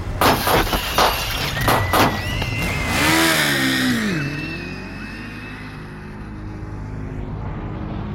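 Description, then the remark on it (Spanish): A motorcycle ridden by a helmeted rider draws up to a car window and revs hard, its pitch swooping up and down before it roars past and fades into a low, steady rumble. “Fue una moto, el piloto se aproximó, le dio tiros a través de la ventanilla y se fue la moto.”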